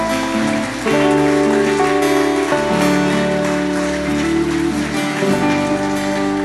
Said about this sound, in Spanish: Y termino, sí, un aplauso para Dios, por favor.